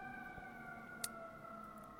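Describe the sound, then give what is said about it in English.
A steady, sustained ambulance siren tone drifts in from outside an apartment, faint, holding a constant pitch with a brief sharp click partway through; no one speaks. “uh, excuse the uh, ambulances outside of my apartment.”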